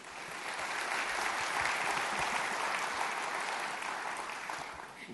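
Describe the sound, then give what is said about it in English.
An audience claps steadily for about five seconds to welcome a guest, a dense, even wash of many hands that swells slightly and then begins to taper off at the end. “But um, yes, uh, more applause.”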